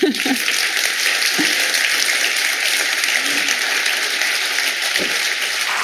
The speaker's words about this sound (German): Ja, ich danke ich Ihnen. bitte um Applaus.